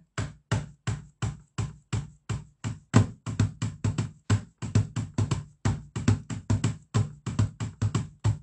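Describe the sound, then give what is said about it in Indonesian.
A long run of sharp knocks on a laptop, fairly loud, coming in quick uneven bursts that speed up at times, with no talking. “sini dah di laptop deh mudah-mudahan uh, mudah-mudahan laptopnya nggak rusak ya ini nih misalnya gini nih”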